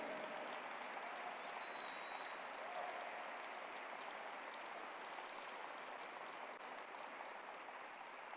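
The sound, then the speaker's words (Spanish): An audience applauds the Lord steadily, a dense, even wash of many hands clapping that holds at a constant loudness for the whole stretch with no talking over it. “Vamos, apláudele más al Señor. Apláudele más fuerte.”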